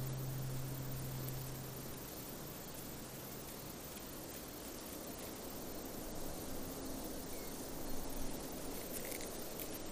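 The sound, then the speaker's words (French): A dense, unbroken chorus of insects in tall grass fills the air on a late summer afternoon, with cicadas shrilling steadily and a bee buzzing low for the first couple of seconds. No one speaks. “Au son des insectes dans les herbes hautes, des cigales et des abeilles.”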